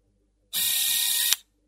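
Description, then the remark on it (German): A single camera shutter fires, a bright mechanical burst lasting under a second and ending in a sharp click, with silence before and after. “Sie ging mit ihrer Kamera zum Friedhof.”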